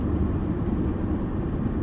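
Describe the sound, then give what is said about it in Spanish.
Steady, loud low-pitched rumble of two stake-bed truck engines running continuously in Puebla, with no talking and no break in the drone. “Atrás de mí hay dos hay dos camiones de como de redilas y enfrente de mí hay una fila muy muy muy cortita, muy muy cortita.”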